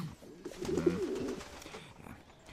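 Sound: pigeon cooing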